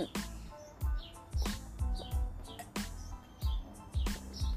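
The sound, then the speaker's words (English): Several birds chirp and tweet outdoors in quick, overlapping calls, mixed with a steady series of low thumps pulsing underneath at a regular pace. “There's a lot of birds chirping around me.”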